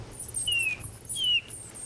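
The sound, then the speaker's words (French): Two soft, slightly falling whistled notes, spaced about half a second apart: a bird imitator at the Baie de Somme whistling the plaintive call of a Eurasian bullfinch, heard alone over faint background hiss. “J'appelle le bouvreuil pivoine, c'est un petit oiseau qui a un sifflement un peu triste, même pas dingue en virtuosité, mais l'oiseau est très très joli.”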